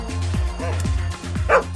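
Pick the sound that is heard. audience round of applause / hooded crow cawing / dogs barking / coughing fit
dogs barking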